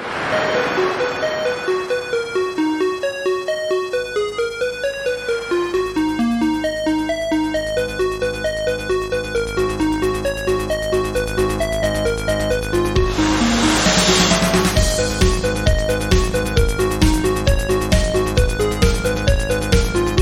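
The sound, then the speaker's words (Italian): The theme jingle of the Back in Time retro games anniversary segment: a bright electronic melody of stepping, bell-like synth notes over a sustained bass, with a rhythmic beat of punchy hits kicking in partway through. No one speaks. “chiudiamo con Back in Time alla veloce. Vai! Pronti? Sigla!”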